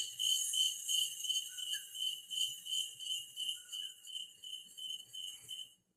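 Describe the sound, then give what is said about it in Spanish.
A cricket chirping sound effect plays steadily in a shrill, high-pitched trill that pulses in quick rhythmic bursts, heard alone before cutting off abruptly near the end. “¿Se escucha bien el grillo es?”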